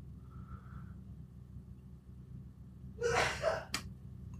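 A single sharp sneeze bursts out near the end, preceded by a quick intake of breath, over a steady low rumble like a running car. Nobody speaks.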